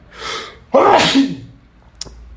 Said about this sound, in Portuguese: Eu sempre que eu espirro, eu tenho uma política na minha religião que é contra colocar a mão na frente da boca, tá? Então eu sempre que vou espirrar, suja tudo a minha parede de, de, de, de espirro, né?